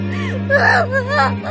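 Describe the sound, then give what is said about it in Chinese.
A loud, wailing cry bursts out by Mao Luoke's ear, with a wavering, sobbing pitch that rises and falls in a few uneven bursts, heard alone over a steady low hum. “这时，一声更大的哭声在猫洛克耳边炸响。”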